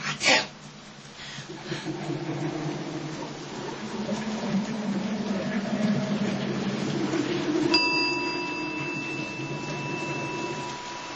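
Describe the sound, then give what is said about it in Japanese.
A bell is struck once near the end, its clear metallic tone ringing on steadily over a low, continuous rumbling hum, following a brief sharp knock at the start. “キーンってやったうおうお確かにそれで鐘の音がした”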